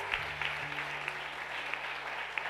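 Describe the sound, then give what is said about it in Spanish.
An audience applauds in a steady, even wash of many hands clapping at once, fairly soft overall, with a low sustained hum running beneath the clapping throughout. “Ahora, si yo lo cometo, si den aplauso fuerte.”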